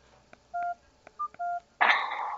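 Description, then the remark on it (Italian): Three touch-tone telephone keypad beeps as a phone number is dialed for a live radio call-in, each a steady dual-pitch tone, with soft clicks between them, followed by a sudden burst of loud hiss and noise. “Ecco il numero telefonico da chiamare ora in diretta, ma per tutti, eh?”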